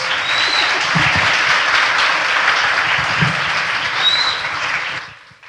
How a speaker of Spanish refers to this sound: Señores, vamos a dar un aplauso a nuestro panel, agradecerles.